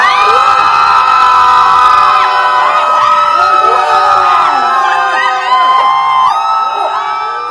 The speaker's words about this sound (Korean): 밖에 마이크 한번 켜주세요. 어? 허밍이들 함성 들려, 들려드릴게요. 이게 돼요? 이게 돼요?